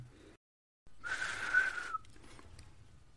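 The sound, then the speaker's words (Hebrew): A strange, shrill whistle sounds alone for about a second after a brief silence, wavering slightly in pitch, then fades into quiet background noise. It comes from a Sneakoscope in Harry's trunk, in a Harry Potter story. “ופתאום נשמעה שריקה, שריקה מוזרה.”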